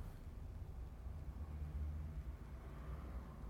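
A steady, muffled low rumble inside a parked car with someone sitting in it, with a constant hum and no voices or distinct events across the few seconds.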